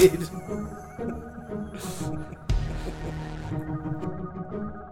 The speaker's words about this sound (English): the sound of that music can only mean one thing. We've had another great show, but it's time to wrap it up.